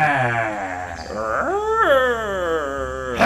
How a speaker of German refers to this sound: Und am besten brüllen wir recht laut dazu.